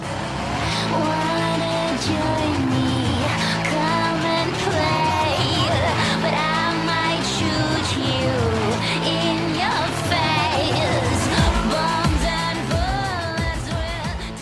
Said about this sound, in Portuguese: Enquanto isso, vocês estão escutando o público, né, gritando, vibrando com a luta que vai acontecendo, até que chega uma hora que um derrota o outro, o público aplaude, grita.